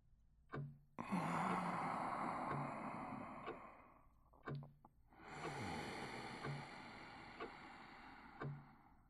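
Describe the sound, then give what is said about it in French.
Two long, deliberate yoga breaths taken to stay calm, each a drawn-out airy rush lasting a few seconds, loud, with a brief pause between them and no talking. “Mais le yoga m'a appris à garder mon calme en travaillant la respiration.”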